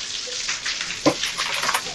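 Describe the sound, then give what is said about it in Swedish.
A shower runs steadily with a hissing spray of water, fairly loud, with a brief splash or knock about midway through. “Men efter ett par sekunder så dör ljudet av duschen.”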